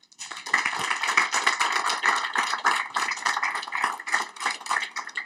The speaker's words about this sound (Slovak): Ďakujem ešte raz e, našim speakerom. Myslím, že si zaslúžia potlesk.